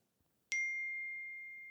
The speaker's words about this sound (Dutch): Ik pak mijn telefoon weer om te zien van wie het berichtje is.